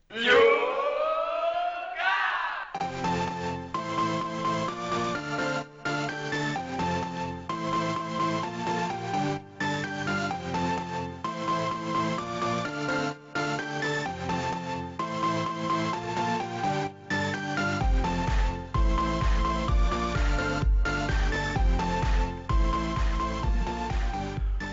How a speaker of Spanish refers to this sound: Y así empieza por última vez el programa con nuestro grito de guerra que decía …